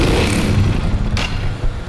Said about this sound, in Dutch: daarom hoor je ook af en toe wat, ja, wat motorgeluiden op de achtergrond. En af en toe even wat gas geven